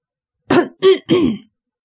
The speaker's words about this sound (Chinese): 于是起身咳嗽一声